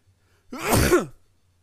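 sneeze

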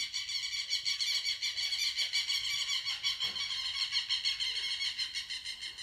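birds calling outdoors

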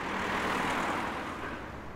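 city street traffic

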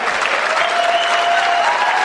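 applause

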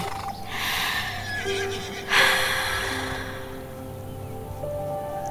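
horse neighing

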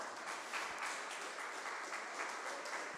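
audience applauding

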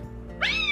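cat meowing

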